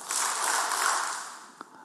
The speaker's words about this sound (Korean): 왜냐하면 오늘 조금 나면 큰일 나고 어딘지 모르기 때문에 박수 세 번 치겠습니다. 시작.